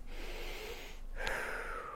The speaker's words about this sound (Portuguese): É isso mesmo, respiração. Se você está respirando muito rápido, a tua fala vai ser mais rápida.